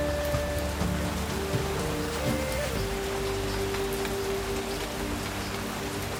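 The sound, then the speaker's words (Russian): Steady rain pours down in a dense, continuous hiss with scattered drop patter, while soft sustained tones hum underneath; no one speaks. “Льется дождь, проливая на тебя благодать и безмятежность.”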